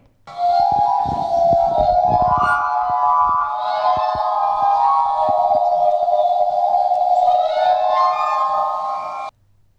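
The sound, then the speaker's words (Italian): A liquid, ringing limestone sound: layered tones that waver and glide, holding steady and fairly loud for about nine seconds, with faint crackles early on before it cuts off abruptly. “Quindi ora state per sentire il suono liquido del calcare”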